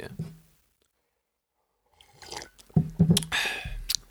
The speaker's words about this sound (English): Let me just take a sip of this coffee.